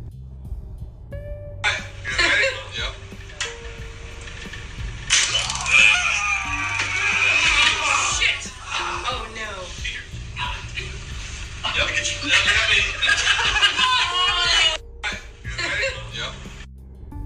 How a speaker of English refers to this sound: So, what you just heard there was two police officers holding what appears to be a recruit and having him tased. This is not uncommon in security, police, or military police, where you are required to be tased in order to use a taser.